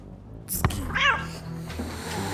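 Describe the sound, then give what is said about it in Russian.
A black cat lets out a single short, clear meow, rising and falling in pitch, over a steady low background hum after a brief thump, as it rubs against the hem of a man's robe. “вместо Далайласа оподол его одеяния начал тереться черный кот”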